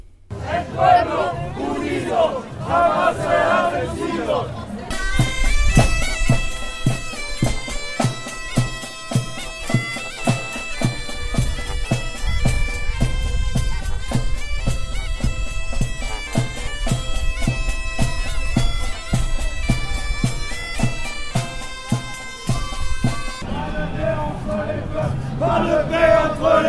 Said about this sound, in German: Abgesehen von der Verkehrspolizei lief kein einziger Uniformierter um die Demonstration herum. Zehn Polizeiwannen folgten hinter der Demonstration. Stark zusammengefasst klang das Vorbeigehen der Demonstration so.